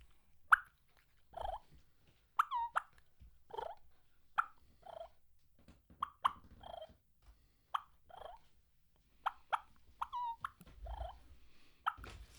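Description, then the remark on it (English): Live turkeys clucking and purring, a steady series of short sharp clucks spaced about a second apart, with soft rolling purrs and little whines between them, no talking. “But if you listen to live turkeys, here's how live turkeys do it.”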